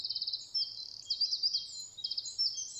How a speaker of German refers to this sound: der Zaunkönig, das ist ein Vogel, der recht klein ist, aber sehr kraftvoll singt und der seine Stimme weit tönen lässt